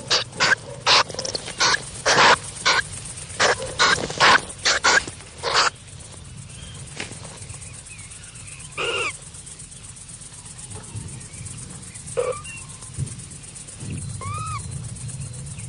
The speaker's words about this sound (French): Elle appelle les petits qui répondent.